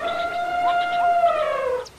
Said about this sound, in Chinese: 里面几头成年大象，大概觉得自己受到了冷落，叫了起来。